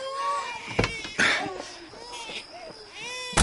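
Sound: newborn baby crying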